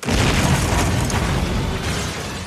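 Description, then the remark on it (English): Loud, continuous explosions from a scene in the film The Lost City: a dense roar of booming blasts and crackling debris that fills the whole stretch, easing slightly toward the end. No speech. “Why are things exploding?”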